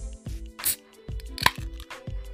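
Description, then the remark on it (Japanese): A beer, a pricier one received as a Valentine's gift, being opened: a run of rough, scraping rustles, then a single sharp, bright click with a brief ringing tone, followed by a few more soft rustling bursts. No one speaks. “今日はあのバレンタインでもらったねあのおビールをねいただきたいと思います”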